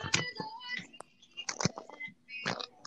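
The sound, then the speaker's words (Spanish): A few sharp pops and crackles of bones being cracked come in irregular bursts with quiet pauses between them. “No sé si esto es un podcast o estamos Tronando los huesos.”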